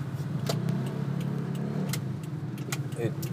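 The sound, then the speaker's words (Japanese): Steady street traffic rumble with a car engine droning, scattered clinks and clatter on top, and faint voices mixed into the busy outdoor noise of a high-traffic street crowded with people and bicycles. “今ね交通量が多いところを通っておりましてね人も自転車もいっぱいいる状態で”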